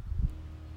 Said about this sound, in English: You hear that lawnmower?